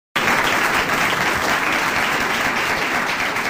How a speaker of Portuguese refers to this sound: Gente, minhas palmas de hoje não tem nenhuma militância por trás